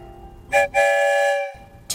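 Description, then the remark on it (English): A train whistle blows twice as the train leaves the station, a short toot followed by a longer, steady blast, loud with no one talking. “two whistles, we're headed for the rainbow tunnel that will take us far, far away.”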